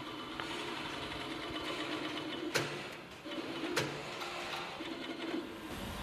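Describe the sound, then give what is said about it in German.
Industrial sewing machines whir steadily, stitching shoe uppers at a shoe production site, a continuous mechanical hum with a couple of sharp clicks standing out against the dense background. “das sieht jetzt erstmal so nicht überhaupt nach Schuhproduktion aus, weil hier so viele Nähmaschinen stehen.”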